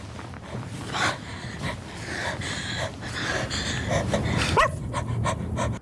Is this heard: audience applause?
no